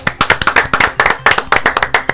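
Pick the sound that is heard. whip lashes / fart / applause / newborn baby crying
applause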